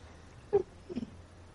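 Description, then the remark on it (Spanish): A female dog lying beside the speaker lets out two short, soft whimpers about half a second apart, close by and fairly quiet, with no one talking. “Tengo al perro al lado.”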